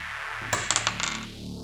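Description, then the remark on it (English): Dice are rolled across a hard table for a character's dexterity score in a quick burst of sharp clicks and rattles, fairly loud, then settle into quiet with no voices. “Let's go back to the dice.”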